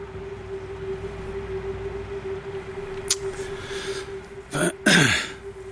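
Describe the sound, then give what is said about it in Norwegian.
Someone clears their throat near the end in two rough bursts, the second longer and trailing off, over a steady low electrical hum with no talking. “De gangene du hører pusting, pauser eller kremting, er det fordi originalintervjuene har det.”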